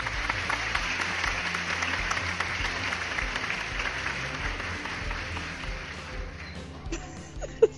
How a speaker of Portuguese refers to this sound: Bota uma salva de palmas aí.